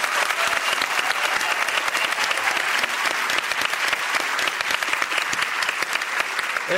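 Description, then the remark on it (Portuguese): A studio audience applauds steadily for several seconds, a dense, even wash of clapping hands with no voices breaking through, welcoming the creators of the series Aruanas from the production company Maria Farinha. “estão aqui na nossa plateia. Por favor, vamos aplaudir.”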